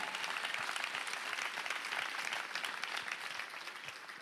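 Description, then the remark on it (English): An audience breaks into steady applause, a dense wash of many hands clapping at a fairly even level for several seconds before it trails off. “О, някой да ръкопляска, ако вярва в това.”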